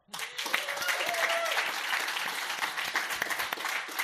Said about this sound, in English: So, shall we give them an applause as well?